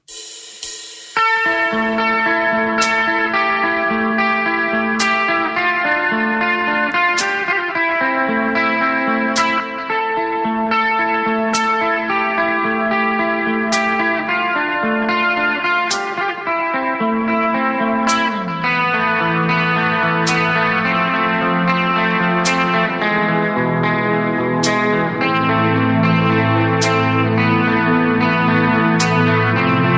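A band's instrumental track plays steadily, with sustained, effects-heavy tones under sharp percussive hits landing roughly every two seconds, and the harmony shifting lower partway through. No one speaks.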